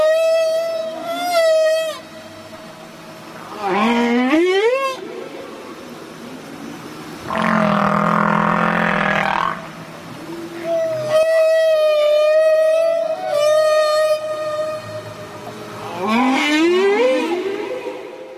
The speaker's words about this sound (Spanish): bueno, como puedes apreciar, el canto de las ballenas jorobadas consiste en notas graves que se repiten en un determinado patrón. Las notas graves varían en amplitud y frecuencia y pueden durar horas y hasta días incluso.